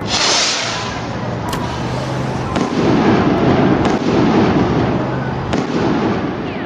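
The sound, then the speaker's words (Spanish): The first gunshots at a crowded gathering by the Chihuahua building in Mexico, fired after flares lit the sky, crack out in several sharp, loud reports at irregular intervals, layered over a dense, continuous crackling roar that fills the whole stretch without any voices. “se oyeron los primeros disparos.”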